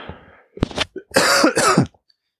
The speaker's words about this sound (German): Ja, ich muss hin und wieder immer wieder husten. Ähm, ich werde das nicht rausschneiden.